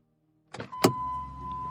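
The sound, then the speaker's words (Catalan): A car is opened and a suitcase loaded into the trunk: two sharp clunks in quick succession, followed by a steady, thin mechanical whine that hums on alone. “Obre el cotxe, desa la maleta al maleter i quan s'asseu al volant engega la ràdio.”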